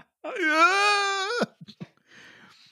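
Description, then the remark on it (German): A voice imitates a horrible scream ringing out from a shop: long and high-pitched, lasting over a second, held steady then cut off sharply, followed by a few short breathy sounds and faint rustling. “Ein grauenhafter Schrei ertönte aus dem Geschäft.”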